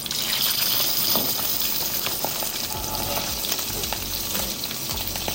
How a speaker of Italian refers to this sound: perché a differenza di quello che si può pensare, il burro nocciola eh, è pronto quando smette di cantare, quindi quando smette di fare rumore.